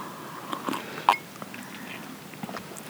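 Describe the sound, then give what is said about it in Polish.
A quiet sip and gulp of water: a few soft, wet mouth clicks and a swallow, with faint background noise and no talking. “Czekaj, wezmę łyka wody jeszcze, bo się zaraz ześlinie.”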